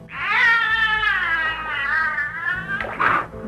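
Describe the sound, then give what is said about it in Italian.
A dolphin imitates human speech in English in a high, squeaky, nasal voice, attempting a greeting of hello: one long wavering tone followed by a short abrupt burst, loud with no other sounds. “c'è un delfino, e lo potete ascoltare, che dice Hello Margaret”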